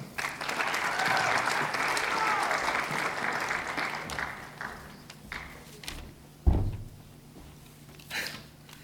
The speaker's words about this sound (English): So, can y'all give them a hand, please?